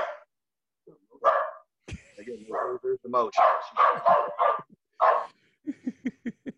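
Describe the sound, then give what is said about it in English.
A dog barks repeatedly at birds, with little mockingbirds outside, in sharp yelps in irregular bursts ending with a quick run of short barks, while people talk and laugh over it. “barking at birds or something.”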